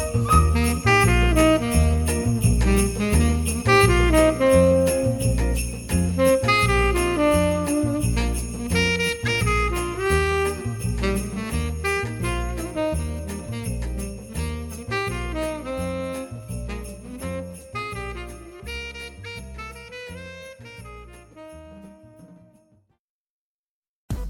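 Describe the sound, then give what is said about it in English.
A lively, upbeat instrumental tune with bright, shimmering sleigh bells jingling over a steady bouncing bass beat, playing loudly for about twenty seconds before cutting off. “Cue the sleigh bells.”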